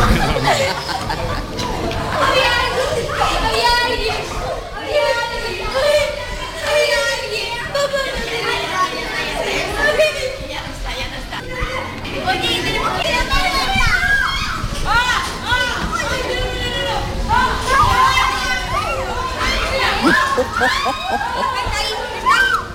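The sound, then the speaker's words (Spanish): A lively crowd of costumed children at night at the Museo de las Ilusiones chatters, calls out and plays, their overlapping high voices forming a steady, busy din with occasional shouts and laughter throughout. “Esto era, eh, eh, el ambiente en esa...”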